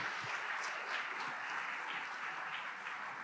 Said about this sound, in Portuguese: É a galerinha do é a galerinha do Detetives da Palavra. De novo, uma salva de palmas aqui para os Detetives da Palavra.